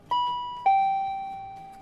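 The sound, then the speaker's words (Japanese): A two-tone electronic chime from a yellow stop-request button on a Toei (Tokyo metropolitan) bus, being pressed: a higher ding followed by a slightly lower dong, each ringing out clearly and fading slowly, with no talking. “都営バスなんかはこれですねはい、ちょっとでは都営バスのボタンを押してみます”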